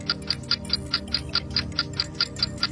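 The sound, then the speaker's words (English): A timer for a timed word game ticks steadily, about thirteen crisp, high clicks in under three seconds at an even, quick pace, with a low hum underneath and no talking. “I'm just going to stop the timer for a second.”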